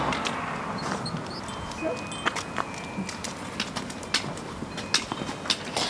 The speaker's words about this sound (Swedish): Det här lilla vindspelet som du har där, är det för att du själv ska höra var du är? Ja, precis det är det.